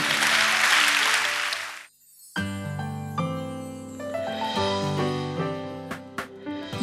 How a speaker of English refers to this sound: Come on, let's give the Lord a clap and shall we?